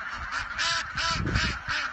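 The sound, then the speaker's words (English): Ducks quack in a loud, overlapping chorus, a steady stream of nasal calls bunched together with no pauses and no talking, as they pour out of a little house into the snow. “This is a video I want y'all to see there are ducks that are pouring out of a little house”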